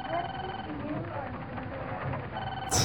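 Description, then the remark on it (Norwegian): A telephone in a video game rings steadily, as it does constantly in the game, amid a busy, cluttered background of muffled chatter and activity, with a brighter burst of noise right at the end. “Og så ringer telefonen konstant.”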